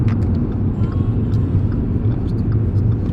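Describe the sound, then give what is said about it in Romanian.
Steady low rumble and vibration inside a car driving to Ciorani, a dense continuous drone filling the low end throughout, with faint higher rattles and ticks scattered on top. “Se aude și din asta, dar nu știu, cred că se prind mult vibrațiile.”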